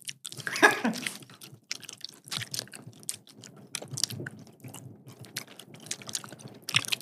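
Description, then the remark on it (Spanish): Close-miked ASMR-style chewing, with teeth clicking and wet, crunchy mouth sounds repeating in an uneven rhythm for several seconds, with a sharper burst near the start and no talking. “Se escucha bien. los dientes.”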